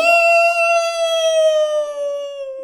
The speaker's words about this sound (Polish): Nieoczekiwanie wilk wydał z siebie straszne wycie. Au!